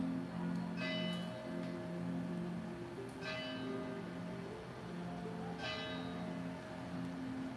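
The small bell of a little church down below rings out in a slow, steady series of strikes about every two and a half seconds, each one lingering and overlapping the next.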